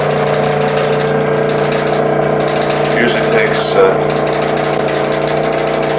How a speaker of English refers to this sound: vacuum out the inside of the uterus now.